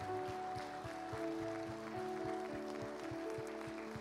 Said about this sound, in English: Come on and give Jesus a hand clap of praise for those three hands.